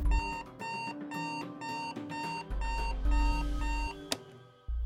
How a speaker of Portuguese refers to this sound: Lembro de acordar na manhã seguinte com o despertador.